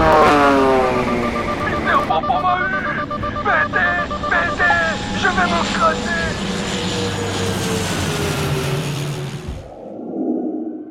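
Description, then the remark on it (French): A loud aircraft engine roars and whines, its pitch wavering as it sweeps past in a diving pass, then cuts off abruptly, leaving a faint low rumble; the aircraft makes another attack pass with its machine gun armed. “Je tente un nouveau passage. Mitrailleuse armée.”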